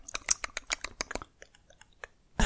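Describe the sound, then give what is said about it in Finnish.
A voice imitates the rapid mouth clicks of blind "clicker" zombies, a dense burst of sharp, crackling clicks that thins out into sparse, fainter ticks before a final loud rasp at the end. “Mutta sitten ne, mitkä on jäänyt eniten mieleen, on ne klikkerit, mm. jotka nakuttaa sille suulla.”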